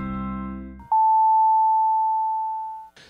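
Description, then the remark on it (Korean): A single sustained electronic beep, a clear steady pure tone lasting about two seconds, preceded by a brief blip and the tail of background music, a radio time signal marking 6:30. “LG 코드 제로 A9 컴프레서가 6시 30분을 알려드립니다”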